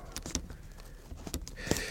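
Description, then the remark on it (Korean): Someone takes out a pen to write something down, making a few quick clicks and light rustling handling noises, quiet and scattered, with no one speaking. “펜을 꺼내서 여기 적어야 됩니다.”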